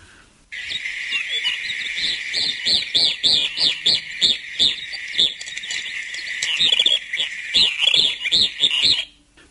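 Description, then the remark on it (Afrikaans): A rapid series of shrill, high-pitched screaming calls from white-rumped swifts, repeated in quick rhythmic bursts for several seconds, loud with no talking. “Maar hier kom nou die kriminele en dit is natuurlik die windswaals, die witkruis windswaal en hy klink so.”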